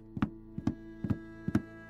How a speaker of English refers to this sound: There was a knock on the door. The wives had returned.